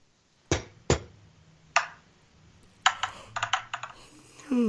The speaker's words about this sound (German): Ähm, so, würfel doch mal.